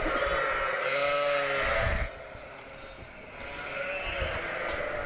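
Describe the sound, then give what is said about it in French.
Sheep, young ones with their mothers, bleat in a pen while being fed pellets, one long wavering call near the start and more overlapping bleats later, set against a steady background of shuffling and farmyard noise. “les, les, moutons, on les nourrit juste, juste après les vaches.”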